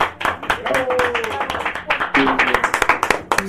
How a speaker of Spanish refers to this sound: Así que de verdad yo un aplauso para todos mis compañeros